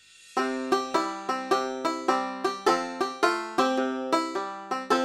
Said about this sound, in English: Banjo? Banjo is an instrument that sounds like this.